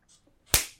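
A single sharp, loud slap to the face, with a faint swish just before the smack and a quick decay afterward. No one speaks.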